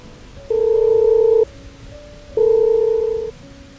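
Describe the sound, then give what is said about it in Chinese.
Two steady electronic telephone beeps, each lasting about a second with a pause between, the flat, mid-pitched busy tone heard after Xu Feng hangs up the call. No one speaks. “徐峰说完，挂了电话。”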